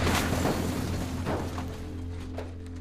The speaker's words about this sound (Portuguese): Quando ele começa a pegar fogo, ele corre pros lados igual louco. explosão.